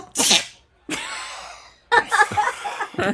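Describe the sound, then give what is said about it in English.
A single sharp, loud sneeze bursts out, followed by a sudden gasp and a short stretch of laughter and murmured voices. “one sneezed.”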